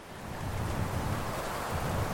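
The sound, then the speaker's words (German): Steady roar of whistling wind and heavy ocean surf, with waves about three meters high rolling under a raft at sea, a dense rushing wash with deep rumbling surges, fairly loud and continuous throughout, with no voices. “An diesem Morgen pfiff der Wind und die Wellen erreichten drei Meter Höhe.”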